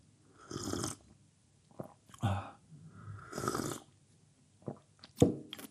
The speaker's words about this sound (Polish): Łyknę sobie tylko tutaj herbatkę zieloną sączę.